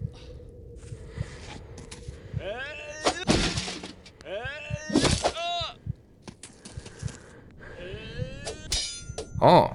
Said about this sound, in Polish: sparował uderzenie.